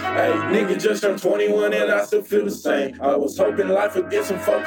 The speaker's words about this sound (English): this is a very rough mix for a song I'm working on